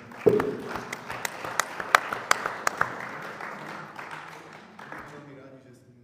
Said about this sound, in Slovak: Tak, ďakujem, veľký potlesk.